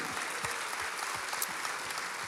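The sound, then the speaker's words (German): A large crowd at a church gathering claps steadily in praise of God, a dense, continuous wash of applause filling the space with no voices standing out. “Und alleine das ist ein Applaus wert unserem Gott im Himmel.”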